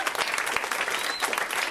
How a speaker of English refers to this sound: Now he used to have a Tuesday night show that was very popular here in Los Angeles called Holy Fuck. And yes, yeah, clap for that show. It was a great show